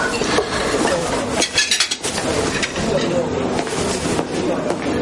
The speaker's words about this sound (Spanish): El camarero se lleva los platos.